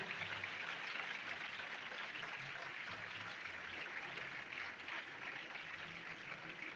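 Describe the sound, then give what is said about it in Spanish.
A church audience applauding steadily for the Lord, a dense, even wash of many hands clapping that holds without pause from start to finish, with no voices over it. “denle el aplauso. No lo detenga, que es para el Señor.”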